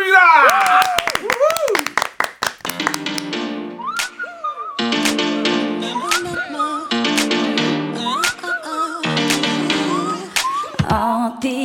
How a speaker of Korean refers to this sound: 자 박수와 함성.